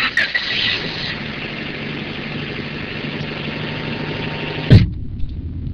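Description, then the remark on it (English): A car engine hums steadily from inside the vehicle on a Friday-afternoon drive home from a school in Palo Alto, a constant low drone with road rumble, ending in a brief thump before the sound drops to a quieter idle. “It's a Friday afternoon, and my dad's driven three hours in rush hour traffic to come pick me up from school in Palo Alto.”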